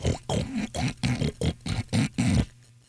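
A pig grunts and oinks in a quick run of about eight snorting bursts, fairly loud, with no talking, then it falls quiet.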